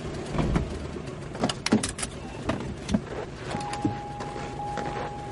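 A car starts beside a house, its engine running with a steady rumble and scattered mechanical clunks and clicks, a thin whine joining in midway as the vehicle pulls away.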